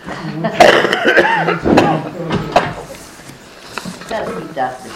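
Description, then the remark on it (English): A few harsh, bursty coughs, spaced unevenly over the first few seconds, with quieter throaty sounds and breathing trailing off afterward. “You stop my cough and I will speak up.”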